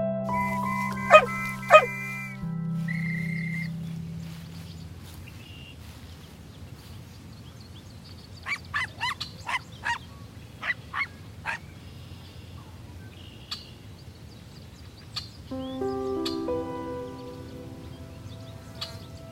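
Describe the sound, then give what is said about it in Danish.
A dog jumps up and barks twice sharply, then after a pause lets out a quick run of short, yappy barks, with low sustained tones humming underneath at the start and end. “Hunden sprang op og gøede, og det var som om hunden prøvede at fortælle storebroren noget.”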